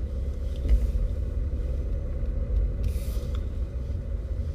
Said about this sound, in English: So I'm now currently going round the car park. Oh, I went in there. Trying to find a space, and it's very busy.